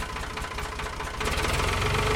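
An old tractor engine on a farm chugs with a steady, rapid knocking rhythm, then grows louder and rougher partway through before settling into a loud idle. No voices.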